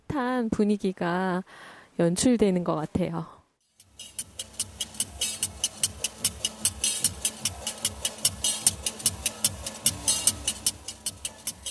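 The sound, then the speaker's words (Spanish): A voice speaks briefly, then a market candy seller's metal scissors clack to advertise his traditional chewy rice-and-grain sweets, in a brisk, steady rhythm of sharp, bright snaps, about two or three per second, over a faint background murmur. “Este sonido metálico y vivaz no es otro que el de las tijeras con las que el vendedor de yacht pregona su mercancía.”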